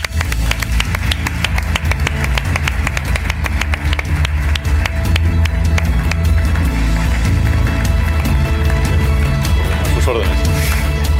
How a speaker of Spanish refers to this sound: Un aplauso fuerte para Tony Segarra.